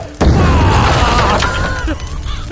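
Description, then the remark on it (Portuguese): A campfire explodes after a hammer is thrown into it, with a sudden loud boom and embers flying everywhere, followed by a rough, roaring burst of noise that lingers for about two seconds and eases off slightly toward the end. “Ai, ai, explode a fogueira, sai brada pra tudo quanto é lado.”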